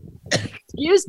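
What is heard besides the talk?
cough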